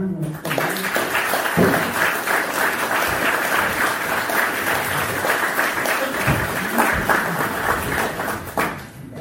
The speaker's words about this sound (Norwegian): Da har jeg lyst til å gi Preben eh, Aabitsland en liten applaus fra dere.